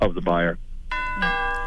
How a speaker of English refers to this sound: Oh, that was the doorbell.